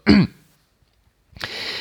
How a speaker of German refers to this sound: Ich hoffe, das geht jetzt mit dem Husten gleich wieder.